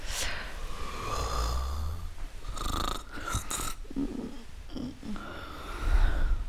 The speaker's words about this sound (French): Alors on se pose tous euh, la question est-ce qu'il ronfle euh, … Non, je ronfle pas.